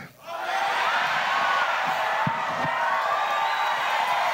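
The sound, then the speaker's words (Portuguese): A large audience shouts and cheers together in response to a sermon, a sustained, loud roar of voices from start to finish, with scattered whoops rising above the crowd noise. “esses caras não são mais batistas, porque eu vou nas igrejas batistas por aí, eu não vejo isso, os caras gritando, vibrando com a mensagem.”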